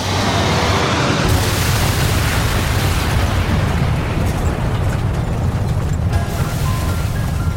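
An airliner slams into the ground at a vertical speed of 91 metres per second with a 60-degree left bank, a massive explosive roar, a dense, rumbling blast of noise that stays loud and unbroken for several seconds, with harsher crackle surging in after a moment.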